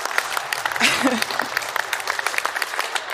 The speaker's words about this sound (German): Ja, da kann man mal klatschen.